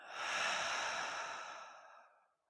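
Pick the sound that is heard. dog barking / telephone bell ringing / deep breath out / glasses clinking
deep breath out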